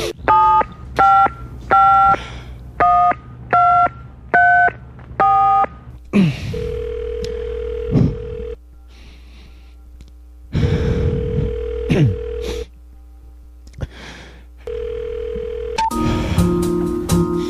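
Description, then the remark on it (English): Seven quick keypad tones beep in a steady rhythm as a phone number is dialed to call a suicide hotline, followed by steady tones and a sustained hum on the line, ending in a brief burst of mixed tones. “We can call the suicide hotline. Here, let me gra- grab a phone here.”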